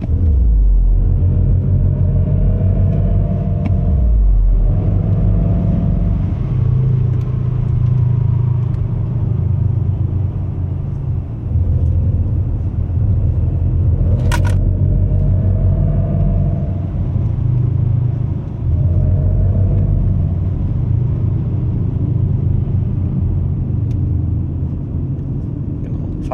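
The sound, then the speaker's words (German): A loud, steady engine-like drone from an electric car's synthetic sound as it accelerates hard in kickdown, with rising tonal layers over a deep rumble throughout, and no talking. “Und auch hier wieder entsprechend verspielt, wenn ich also Kickdown mache”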